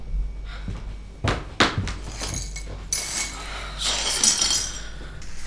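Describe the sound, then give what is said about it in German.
Shards of broken drinking glasses in a kitchen clink and scrape together in a few sharp, bright bursts, followed by a rustling, crunching shuffle of glass pieces. “Die haben unsere Gläser zerbrochen.”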